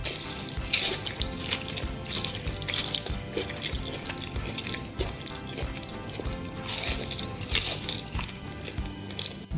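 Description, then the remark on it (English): Loud wet slurping and chewing as a woman eats black bean noodles in an ASMR eating video, a continuous stream of sticky, squelchy mouth sounds with no talking. “And here she is eating black bean noodles.”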